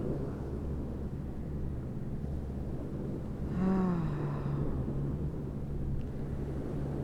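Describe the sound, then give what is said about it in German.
Ocean waves roll in as a steady, low rumbling wash of surf. Midway, a brief wavering tonal sound rises above it. No one speaks. “Du hörst die Wellen im Hintergrund hier, das Meeresrauschen.”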